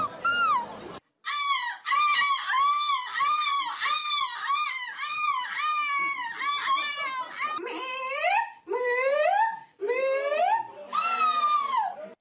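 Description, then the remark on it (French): Human voices imitate seagull cries at a contest with nearly 50 participants before judges and an audience: a quick series of repeated yelping calls, then several longer, rising, wailing squawks, loud with short pauses between them. “Imitation du cri de la mouette.”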